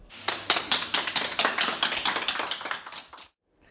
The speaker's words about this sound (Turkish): Adeta yeniden doğan bebek alkışlarla taburcu edildi.